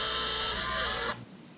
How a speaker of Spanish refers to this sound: Terrícolas, la última vez que sonó esta alarma fue en 1939. Algo muy grave debe estar ocurriendo.